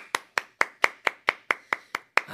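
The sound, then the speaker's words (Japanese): Steady hand clapping from female staff, after congratulations to pitcher Wada on his 150th NPB win, about ten sharp, evenly spaced claps over a couple of seconds, crisp and moderately loud with no voices. “もう今の拍手から見ても分かりますもう女性スタッフから拍手ありましたけども本当に女性人気がね本当に若い頃より多くなっているような僕イメージあるんです”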